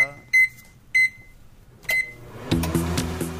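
Three short, high-pitched electronic beeps from a microwave oven, unevenly spaced, over a low background hum, followed by louder music that starts in the last second.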